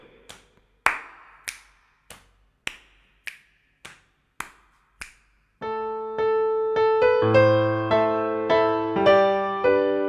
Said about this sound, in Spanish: Y nuestro patrón no vamos a hacer solamente dos palmadas, vamos a hacer muslos, palmas y qué, eh, se te ocurre que podemos hacer. Vamos a hacer eh, chasqueo